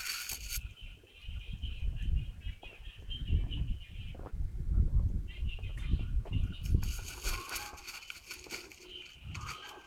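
Birdsong in the mountains during the Guyu (Grain Rain) season: a steady wash of high chirps and trills runs throughout, over a low, uneven rumble of wind-like noise that swells and fades.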